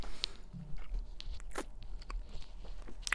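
Chewing of tough steak, with wet crunching bites and smacking sounds repeating irregularly over a few seconds, no talking.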